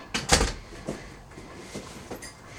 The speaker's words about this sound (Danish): Du får lov til at løfte døren. Ja, det er fint.